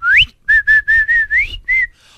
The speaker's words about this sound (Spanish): Cuando paso por tu casa y te chiflo.